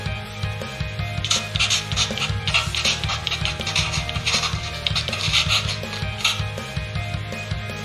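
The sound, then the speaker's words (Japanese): Scratchy, rasping pencil strokes scrawl across paper in quick irregular bursts, fairly loud, over a steady low hum, with no voices; a pencil-writing sound effect. “この音っていうかこんな音ね 鉛筆で書く音そうあのそのシーン見ながら思い出してました”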